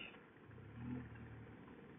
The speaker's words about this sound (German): Hinten kommt ein Auto.